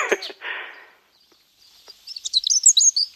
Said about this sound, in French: Voilà. On les entend d'ailleurs les oiseaux là.